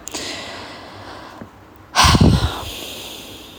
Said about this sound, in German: kurz atmen.